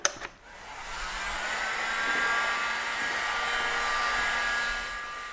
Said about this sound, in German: Nun trocknet er die Lötnaht mit einer Art Föhn.